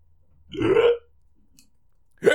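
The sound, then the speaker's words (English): A single loud hiccup, a short throaty gulp of about half a second, followed by quiet before another abrupt vocal sound cuts in at the very end. “Uh, the final hiccup.”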